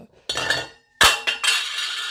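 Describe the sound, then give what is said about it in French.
Metal utensils clink and scrape against dishes while cheese chips are being cooked: a few sharp clattering hits followed by sustained bright scraping and rattling, fairly loud, with no voices. “Excusez-moi, je suis en train de cuisiner des chips au fromage en même temps.”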